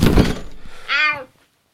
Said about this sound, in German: Hey, Dicker, wo soll ich denn jetzt die Kürbisse hinlegen? Wie wäre es mit dem Katzenkorb? Ich leg sie auf die Werkbank.